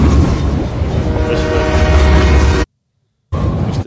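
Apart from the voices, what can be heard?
train passing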